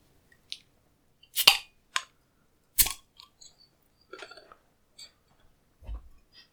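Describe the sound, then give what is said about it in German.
A 0.33-litre beer bottle with a large yellow Ü on a purple, pink and black label being opened to pour into a glass: a few sharp, crisp clicks and snaps, a short fizzy rustle, then a soft low thud. No one speaks. “Und ich werde das jetzt öffnen und mal einschenken.”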